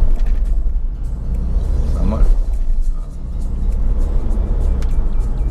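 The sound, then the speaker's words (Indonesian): A car engine in BSD drones with a steady low rumble, then briefly climbs in pitch as it accelerates before settling again. A voice talks over the engine noise. “nah, tarikan suara mesin emang terdengar sedikit keras”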